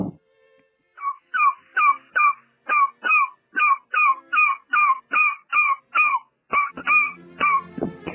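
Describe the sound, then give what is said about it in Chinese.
A voice imitates a duck quacking: about fifteen short, nasal, fairly loud quacks in a quick steady rhythm, each clipped and even, with no talking around them. “先是小猫叫，然后是小狗叫，然后是小鸡叫，然后是小鸭子叫。”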